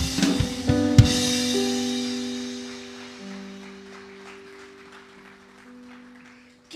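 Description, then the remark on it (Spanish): Audience applause for Christ Jesus swells at the start and gradually fades over several seconds, with sustained keyboard chords ringing underneath; no one speaks. “Nos hemos llenado de tanta tierra, de tantas cosas terrenales, y se nos ha olvidado buscar de la fuente de la bendición que se llama Cristo Jesús, para el cual pido un fuerte aplauso.”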